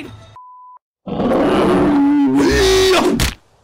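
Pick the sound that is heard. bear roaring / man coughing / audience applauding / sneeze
bear roaring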